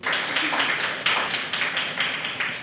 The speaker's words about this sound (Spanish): Les doy un aplauso por favor para ella.